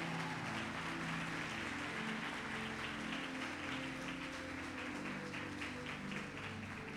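A church audience claps for the Lord during a sermon, a dense, steady roar of applause lasting several seconds, with low sustained musical tones humming underneath.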